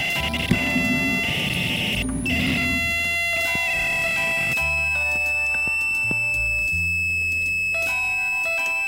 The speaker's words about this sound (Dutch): Nee, dat is niet het koffieapparaat. Jawel, jawel. Dat uh, irritant gepiep was toch niet... Ah nee, dat is helemaal niet koffieapparaat.